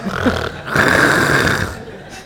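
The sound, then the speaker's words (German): A voice imitates an old lady snoring loudly: a short rasping lead-in, then one long, rough, rattling snore drawn out for over a second, followed by a brief exhale. “Die schnarcht sehr laut.”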